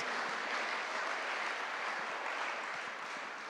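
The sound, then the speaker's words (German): An audience applauds Jesus, a dense wash of many hands clapping at a constant, fairly loud level for the whole stretch, with no voices rising above it. “Lass uns mal Jesus einen Augenblick in diesem Kontext einen Applaus geben.”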